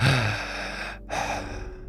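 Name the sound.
imitated heavy breathing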